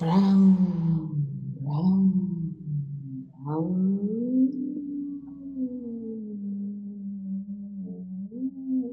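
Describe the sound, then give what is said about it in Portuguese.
A single voice imitates a minivan, making a continuous, fairly loud engine-like hum for about nine seconds, with the pitch rising and falling in smooth glides and a few brief rougher bursts. “Que barulho faz uma minivan”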